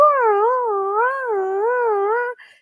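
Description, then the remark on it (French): A person imitates the howl of a dog that vocalized to express itself: one sustained, wavering tone that rises and dips in a slow undulating pattern for a couple of seconds, fairly loud, then cuts off abruptly. “Et c'était un chien qui vocalisait pour s'exprimer.”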